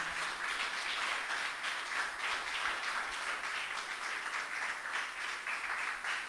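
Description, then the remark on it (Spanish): A large group applauds Christ steadily for several seconds, a dense, continuous wash of many hands clapping at once, fairly loud and even throughout with no voices standing out. “Den un aplauso a Cristo por eso, porque Él es bueno.”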